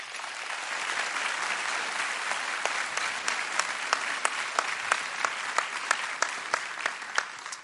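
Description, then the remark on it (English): An audience applauds for the family of a man being thanked for his service: a steady, dense wash of clapping with a few sharper individual claps popping out rhythmically above it, sustained at an even level throughout. “Please applaud for his family.”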